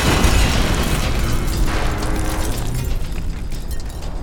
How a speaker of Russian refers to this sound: Кувалда неловко и смущенно наклонился, чтобы поцеловать Веспу в лоб, и в этот момент их всех оглушило взрывом.